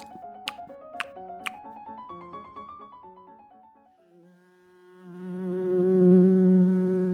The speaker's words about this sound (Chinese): 咦咦，什么声音啊？啊，是是蜜蜂，一定是我的棒棒糖太香了，蜜蜂也想来叮一口，怎么办？